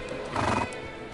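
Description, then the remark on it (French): A horse caparisoned in purple and gold, champing its foam-white bit at a palace threshold in Carthage, lets out a short whinny that swells and fades within a second, with a few hoof stamps underneath and no voices. “Son cheval, caparaçonné de pourpre et d'or, est là, qui frappe du pied et mord fièrement son frein blanc d'écume.”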